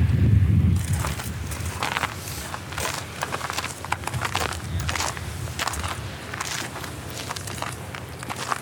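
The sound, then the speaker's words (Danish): Steady footsteps climb outdoor stairs into an English garden in a park, each step a crisp scuff in an even rhythm, with a brief low rumble at the start and no voices. “Så går vi op trapperne og ind i øh, den øh, øh, engelske have”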